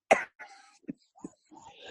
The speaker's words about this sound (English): you shouldn't be talking. That's what makes you cough.